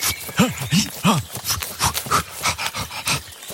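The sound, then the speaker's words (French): A father black bear growls, a string of rough, moaning snarls followed by rapid guttural huffs and grunts, loud and continuous for a few seconds. “Qu'est-ce que c'est que ce bruit Professeur, un, un, papa ours là, au-dessus de votre épaule.”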